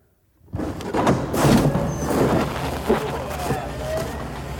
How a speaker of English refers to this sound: All right. I think this is it. I'm going to have him open up the door.